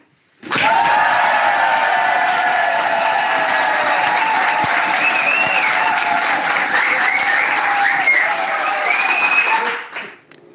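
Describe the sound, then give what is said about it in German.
A large live crowd applauds steadily and loudly for about ten seconds, with scattered cheers mixed in, then the clapping drops off abruptly almost all at once, everyone stopping together without prior arrangement. “Und das Lustige ist, haben wirklich alle, ohne dass wir das abgesprochen haben, ähm, wirklich alle aufgehört.”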